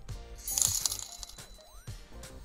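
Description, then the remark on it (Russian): A short, bright test alert chime for a live stream, with tinkling, clinking tones and a quick rising sweep, played clearly, with no talking over it. “Сделать тестовое оповещение.”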